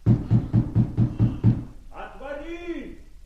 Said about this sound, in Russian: Отвори! Стучит кто-то.